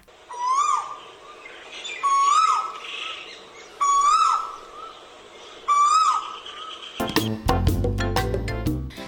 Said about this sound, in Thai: ชื่อของนกตัวนี้เรียกตามเสียงร้องที่เราได้ยินกันค่ะ นั่นก็คือนกกาเวาค่ะ